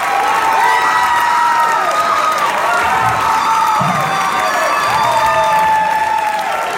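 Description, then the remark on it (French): A loud crowd cheers and applauds continuously as a studio learns it has won, with scattered shouts and high-pitched whoops rising over the dense wash of clapping for the full stretch. “Revivons ce moment intense alors que le studio apprend que c'est eux qui gagnent.”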